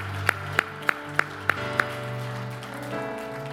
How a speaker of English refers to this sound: If you believe that, clap your hands one more time unto the Lord.